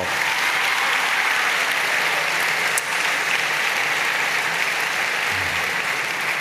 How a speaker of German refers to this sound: Ich weiß nicht, wie viel im Publikum so früh aufstehen wie die zwei. Das verdient mal einen Applaus für euch, zu früh aufstehen.